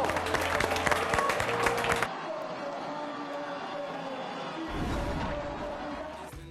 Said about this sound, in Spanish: El aplauso. Argentina campeón del mundo.